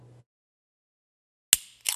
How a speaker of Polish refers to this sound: Otworzyłeś, otworzyłeś Monstera. Nie, Red Bull. No, no, myślałem po, po, po, kliknięciu, myślałem, że to Monster.